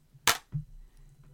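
Aluminium cups bump together in a toast: one sharp, dull knock followed by a softer low thud, with no bright ringing clink afterward.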